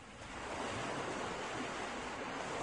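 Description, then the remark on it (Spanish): Steady roar of ocean surf washing onto a shore, a broad continuous rush that swells slightly near the start and holds at a moderate level with no voices. “El aroma de las olas y su canto despertó a Grant”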